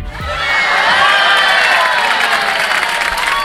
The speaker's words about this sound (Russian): Так что аплодисменты.